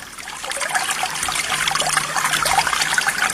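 River water flows and babbles steadily over stones, a continuous rushing trickle at moderate volume with no voices or other sounds.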